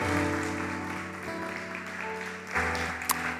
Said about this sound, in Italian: Alleluia! Diamo un altro applauso al nostro Dio, al nostro Signore.